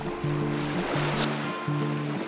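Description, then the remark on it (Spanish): Waves roll in and break over pebbles and sand, a steady rushing surf with a brief hiss as one crashes, while a low droning hum runs underneath. “solo el sonido de las olas avanzando y su posterior reventar sobre las piedrecillas y la arena.”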